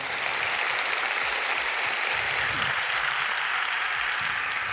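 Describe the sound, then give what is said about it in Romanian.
Sustained applause from a large, sold-out audience at the Palatul Național in Chișinău, welcoming a professor: a dense, steady wash of clapping that stays loud and even throughout, with no speech over it. “Aplauze, vă rog frumos, pentru profesorul Constantin Dulcan.”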